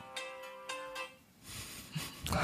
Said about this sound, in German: das war mein Wecker für Antidepressiva, dass die mir dabei helfen, mich selber zu lieben.